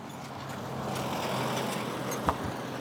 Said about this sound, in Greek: Περνάει και ένα αυτοκίνητο.